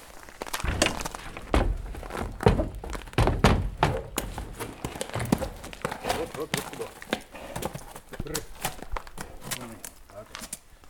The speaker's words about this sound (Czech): Tak a teď se nám tady z přívěsu objevil kůň. Jak se jmenuje koník? On se jmenuje Kuba. Aha. Plemenný hřebec Kuba.